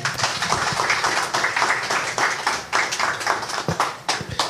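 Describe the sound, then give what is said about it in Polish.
Audience applause at a literary event with author Kateryna Babkina and translator Bogdan Zadura: a steady, dense wash of many hands clapping at once, sustained at an even, fairly loud level for the whole stretch, with no voices heard over it. “Wielkie brawa dla Państwa.”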